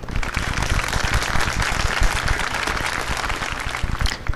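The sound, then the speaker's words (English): Audience applause in tribute to Alex Trebek: dense, sustained clapping from a crowd, loud and steady for a few seconds, a broad crackle of many overlapping hand claps with no voices on top. “Let's hear it for uh, let's hear it for Alex Trebek, one of the greatest of all time.”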